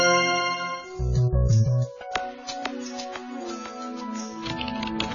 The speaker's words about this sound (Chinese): 当你轻敲键盘， 当你轻敲键盘， 点鼠标， 轻点鼠标，